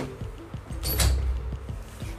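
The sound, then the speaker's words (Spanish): A door is pushed shut: a brief swishing rush and a soft low thud about a second in, followed by a few faint knocks. “No sé por qué la puerta se está abriendo.”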